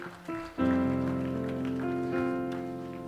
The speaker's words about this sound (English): All that hand clapping, that was hopefully that I would awake, is it?